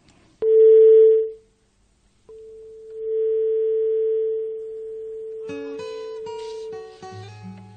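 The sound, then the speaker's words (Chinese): A radio programme places a phone call to psychology expert Mu Kai: a steady tone sounds, breaks off, then returns as a long dial-line hum before a flurry of short beeping tones and clicks layers over it as the line connects. “接下来，我们来电话连线我们节目的老朋友，著名的心理专家穆凯。”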